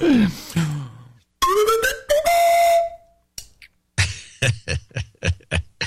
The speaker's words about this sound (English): Slide whistle? Give him a slide whistle.